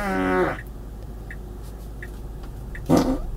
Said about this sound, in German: es gibt hier einen Furzautomaten. Ich kann es auf jeden Platz hier im Auto furzen lassen. Einfach nur hier Furz on Demand auf die Taste drücken und es furzt. Ich kann es auch beim Blinken automatisch furzen lassen.